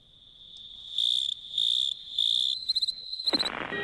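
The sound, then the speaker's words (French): Insects chirp steadily in a high, buzzing trill in a wildlife sound collage closing a show on radio station CIBL, swelling into repeated pulsing bursts, then a few quick chirps, ending in a burst of broader rustling noise. No one speaks. “On se revoit euh, la semaine prochaine dès 6 heures et on, termine sur un dernier collage sonore de faune radio.”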